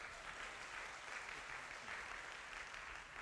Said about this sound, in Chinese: 这些年轻人真的非常的棒，好不好？再一次给他们热烈的掌声。